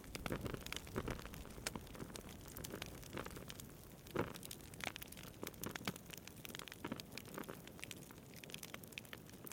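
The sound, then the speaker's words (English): Steady crackling and popping of a fire, with dense irregular snaps over a soft hiss, moderately quiet, and one sharper pop standing out midway. No voices. “Yeah, but it's just like the fire.”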